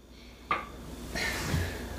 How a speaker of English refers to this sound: I'm setting the drink down.